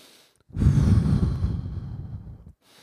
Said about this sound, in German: Atme tief ein und ich hab, es gibt ja so unterschiedliche Ta äh, Atemtechniken. Tief durch die Nase ein und durch die geschlossenen Lippen wieder raus.